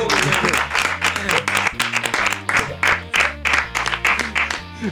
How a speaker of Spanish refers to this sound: Vamos, vamos a darle un aplauso, por favor. Sí, por favor.